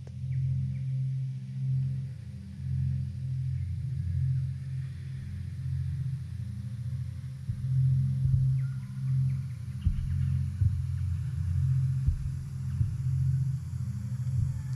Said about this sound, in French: tu décides de tourner ta tête et de coller ton oreille sur ce ventre. Tu entends la pulsation lente et étouffée d'un cœur au repos.